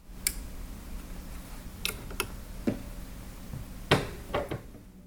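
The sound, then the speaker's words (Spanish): A sewing machine clicks and clunks, with scattered, irregular mechanical knocks over a faint low hum, and no voices. “Desde que tengo unos seis años recuerdo a mi mamá sentada sobre una silla de madera, frente a una máquina de coser.”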